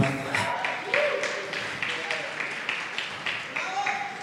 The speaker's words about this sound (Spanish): Y se llama Cielo Abierto. Wow, qué un aplauso a, a creatividad.